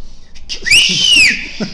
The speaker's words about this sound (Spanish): A ver, ¿puedes chiflar algo así como de terror, güey?